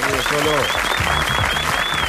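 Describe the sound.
Steady audience applause, a tribute to Córdoba sportsman Cholo Guiñazo, who is present, fills the whole clip, a dense crackle of clapping mixed with cheering voices and a thin whistle on top.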